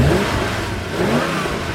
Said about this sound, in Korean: 한 주 시작하는 월요일 시동 걸고 출발했어요. 자동차 공회전 소리입니다.